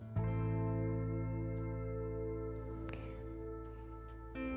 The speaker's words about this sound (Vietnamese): các bạn có vừa nghe tiếng gì không đó là tiếng chuông chánh niệm đấy ở nhà thì mình vẫn cài chuông chánh niệm vào khoảng một tiếng một lần thì sẽ kêu bo một cái và lúc đó thì mình sẽ giữ im lặng tập trung vào việc hít thở